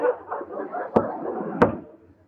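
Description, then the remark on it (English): Two sharp knocks on a wooden lifeboat on a ship's top deck, for good luck, spaced about two-thirds of a second apart, rap out over a steady murmur of voices talking. “What are you knocking on that lifeboat for, miss?”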